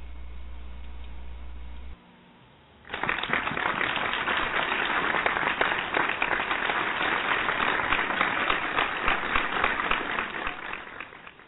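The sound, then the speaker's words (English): A large crowd breaks into sustained applause after a brief low hum and a pause, the clapping dense and loud, holding steady for several seconds before starting to taper off. “I wish I could get applause like that.”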